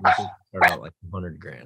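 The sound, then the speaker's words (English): A male dog barks several times in quick succession, loud, the short harsh bursts overlapping with a person speaking. “That's my dog. He really loves the mailman.”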